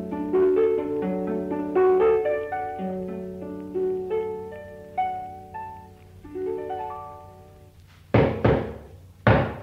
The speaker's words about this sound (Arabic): استنى عندك ما تفتحش يا حنيشه افتح الباب يا حنيشه انا عارف دي خبطه مين